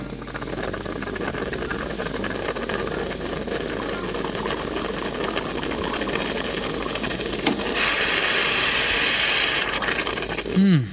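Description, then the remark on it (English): An espresso machine hums and rattles steadily as hot water is forced through freshly ground coffee, with a hissing steam burst near the end and a brief gurgle at the close. “That is the sound of hot water being pushed through freshly ground coffee, which eventually leads to the pouring of coffee and then the drinking of coffee.”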